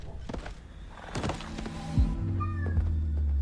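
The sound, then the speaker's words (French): A cat meows loudly and insistently, its drawn-out cries standing out over low mechanical hums and a couple of dull knocks. “Vous l'avez entendu, Pop Pop, c'est c'est Elden Ring qui te fait ça”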